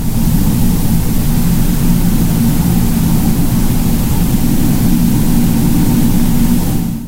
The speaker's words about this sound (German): Doch für die Forscher ist dieses Rauschen ein Chor der Unterwasserwelt. Es ist die Überlagerung von vielfältigen Tonquellen, dem Wind an der Wasseroberfläche, kalbenden Eisbergen, vor allem aber der Meeressäuger, die kommunizieren oder jagen,